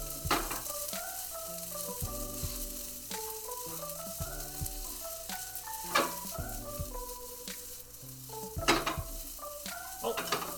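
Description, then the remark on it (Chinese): Shrimp fried rice with a little raw garlic added being stirred in a wok using the residual heat of the wok bottom, with repeated scraping spatula strokes and a soft, steady sizzle, set against gentle melodic background music; no one speaks. “那也要稍微拌一下，用这个锅底的余温。”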